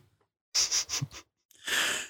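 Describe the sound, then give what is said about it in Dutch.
Heavy panting: a quick run of four or five breathy huffs, a brief pause, then one long, loud exhale. No talking. “En ik hoor jullie net iets te goed in mijn oren hijgen.”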